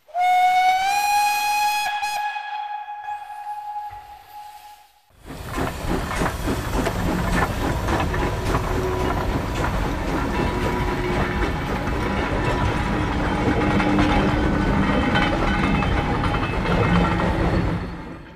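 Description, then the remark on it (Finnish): A steam whistle sounds a long, harmonic blast for a few seconds, then gives way to the loud, steady rumble and clatter of a train rolling along the rails. “Liikennettä höyrykone nopeutti rautateiden myötä ja helpotti ihmisten ja tavaroiden siirtämistä paikasta toiseen.”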